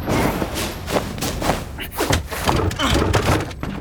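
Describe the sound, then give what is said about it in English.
A heavy wooden trapdoor in an opera house slams shut with a loud thud, followed by several more banging knocks and rattles in quick succession over a busy, noisy background. “the trap door. I can't open it.”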